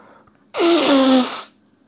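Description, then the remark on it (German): A single loud nose blow, about a second long: a rushing, breathy honk with a faint whistling tone that slides lower, then quiet. Nobody speaks. “Im Moment eben Nase putzen.”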